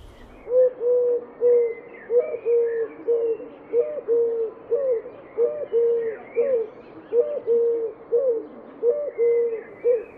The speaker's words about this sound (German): Und Türkentauben gurren vor sich hin. Hol Surkraut, rühr du. Hol Surkraut, rühr du. Ja, Türkentauben ist eigentlich äh, eine äh, östliche Art äh, ist bis im 17. Jahrhundert eigentlich nur in, in Indien vorgekommen, in dieser Region,